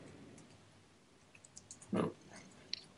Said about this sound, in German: Ich bin gerade am Tippen hier eine Antwort geben.